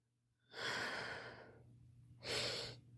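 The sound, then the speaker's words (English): Two breathy sniffs taken while smelling Loubicrown perfume dotted on a tester paper strip: a long drawn-in inhale, a brief pause, then a shorter second sniff, with no talking. “Breathing that one in again.”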